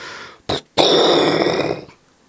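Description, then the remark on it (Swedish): A voice imitates an explosion blasting a hole in a weakened wall: a short throaty burst, a brief gap, then a longer rough, roaring blast that holds for about a second before cutting off. Fairly loud, with no speech. “och ett hål sprängs upp i muren.”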